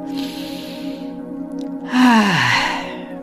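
An audible breath, taken into the lower pelvic region during a guided relaxation, is followed by a voiced exhale that slides downward in pitch like a sighing moan, heard alone over a steady low hum.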